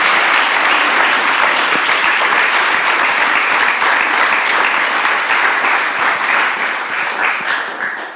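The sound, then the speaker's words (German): A crowd applauds loudly and steadily, a dense wash of many hands clapping that holds for several seconds before thinning out and fading at the end. “Ich glaube, sie hat nochmal einen herzlichen Applaus für verdient.”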